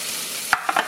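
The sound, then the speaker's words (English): Steady hiss of corn sizzling in a hot pan, with three quick scraping knocks near the end as it is stirred. No talking, fairly loud. “We're gonna wait on the mushrooms because we're gonna cook the corn first.”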